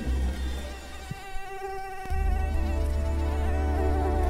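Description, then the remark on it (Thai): A mosquito whines, a thin, continuous buzz that wavers slightly in pitch, with a low background hum that grows louder partway through. “และนั่นจึงเป็นเหตุผลที่มนุษย์ต้องตบยุงทุกทีที่รู้สึกว่าโดนยุงกัดนั่นเอง”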